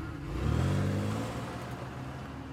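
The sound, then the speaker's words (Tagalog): A booked car's engine revs up, its pitch rising then settling into a steady low hum as the vehicle pulls away carrying passengers, with no voices. “dumating na ang binok kong kotse at bumiyahe na kami papunta kina Ivy”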